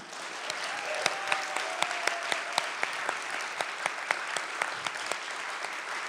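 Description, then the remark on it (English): An audience applauds steadily for several seconds to congratulate the participants, a dense wash of many hands clapping with a few sharper, louder claps standing out in an irregular rhythm. “We can clap.”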